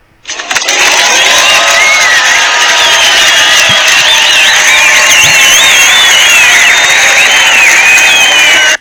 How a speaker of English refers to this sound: we have to you know we have to give the applause for you guys now take it